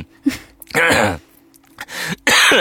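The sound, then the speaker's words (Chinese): A person coughs and clears their throat in a few harsh, rasping bursts, with short pauses between them and a longer final cough. No words are spoken. “说的我都想咳嗽了。”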